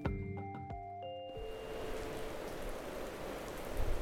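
Heavy rain pours down at the Hautefeuille farm in the Somme, France, in a dense, steady hiss that fills the scene. It starts right after a short musical chime cuts off and continues loud and unbroken to the end.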